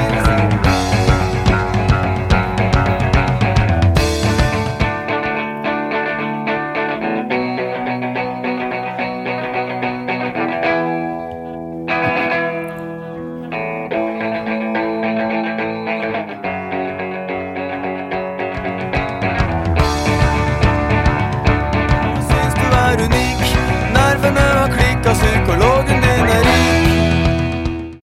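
A guitar part from a song plays steadily for about half a minute, with sustained, effected tones and a brief thinning midway before a fuller, brighter return. No one speaks.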